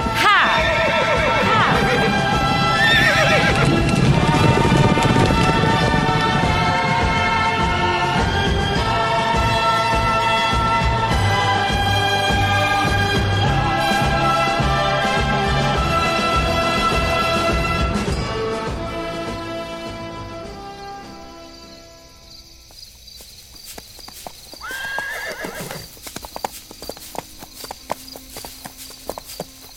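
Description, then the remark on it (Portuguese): Horses gallop with steady clip-clopping hooves while loud neighs and whinnies ring out; the commotion fades after about twenty seconds, leaving a quieter stretch with another whinny near the end. “Daqui em diante, sem cavalos.”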